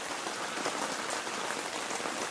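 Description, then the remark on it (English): Steady rain patters on tent fabric overhead on a rainy day, a dense, even hiss of countless drops with no letup, moderately loud. “I'm sitting in a tent on a rainy day doing a podcast.”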